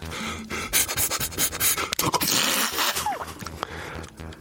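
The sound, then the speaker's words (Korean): A voice imitates squeezing ketchup from a bottle: a run of wet, sputtering, breathy bursts and squelches, fairly loud, rising and falling unevenly over a few seconds with no words spoken. “그는 의자가 내려앉는 소리부터 케첩 짜는 소리”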